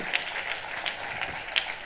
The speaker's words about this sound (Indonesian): Kita kasih tepuk tangannya yang meriah buat Tuhan.